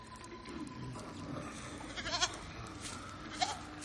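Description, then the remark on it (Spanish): Two goats eating hay bleat twice over a low, steady background, one wavering, quavering call midway and a second shorter, fainter bleat near the end, both fairly high-pitched and nasal. “Dos cabras comen heno.”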